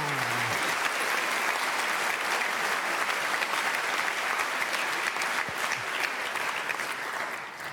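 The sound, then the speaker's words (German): Sustained audience applause at the 2018 Big Brother Awards, as the consumer protection award goes to Amazon for its voice assistant Alexa: a dense, steady wash of many hands clapping at an even loudness throughout, with no voices standing out. “Ja, ja, ich ahnte ja schon, dass es für diese Art Preisträger ganz viel Beifall geben würde.”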